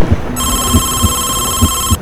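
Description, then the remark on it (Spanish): A home telephone rings with a steady, high electronic tone that starts abruptly and holds continuously, while soft low thumps pulse faintly underneath. “De repente sonó el teléfono de su casa y esa fue la salvación.”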